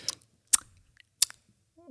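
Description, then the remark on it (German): Three sharp, crisp clicks or smacks spaced roughly evenly apart, like wet chewing or lip smacking, followed by the start of a voice at the end. “Und Schmatz und Geräusch und so.”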